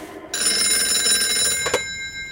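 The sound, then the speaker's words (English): A telephone bell rings loudly in one continuous metallic burst of about a second and a half, then cuts off with a brief clatter as the tone fades away. “But then I hears the telephone ringing and I thinks, I should answer it before it wakes everyone up.”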